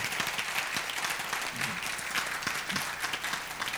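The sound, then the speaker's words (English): A crowd of many people claps steadily together for Jesus, a dense, sustained wash of applause filling the whole stretch, with faint voices murmuring underneath. “Can you clap for Jesus?”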